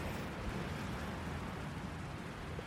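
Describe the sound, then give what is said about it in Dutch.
Strong wind roars steadily across an open beach at about quarter past nine in the evening, a dense, continuous rumble with gusty low-end buffeting and no voices, as if battering a microphone. “En ik loop nu het strand op. En het waait heel hard.”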